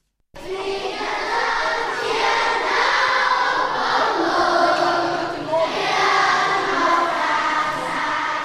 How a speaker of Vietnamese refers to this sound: Đó là tiếng hát quốc ca của các em học sinh trường tiểu học thị trấn Trúc Sơn A chuẩn bị cho ngày khai trường.